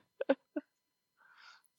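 A female dog gives three quick, muffled barks at deer in the yard, two close together and one just after, followed by a soft breathy rustle.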